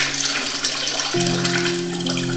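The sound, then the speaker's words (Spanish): Tap water pours steadily into a cooking pot being filled for cooking, a continuous splashing rush with a hollow ringing tone that jumps upward partway through as the pot fills. “Estoy llenando una olla para cocinar.”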